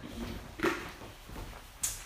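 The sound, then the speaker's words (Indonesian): A chair is dragged, with a scraping knock near the start and a second sharp bump near the end. “nggak nggak mending gua ngambil tarik kursi”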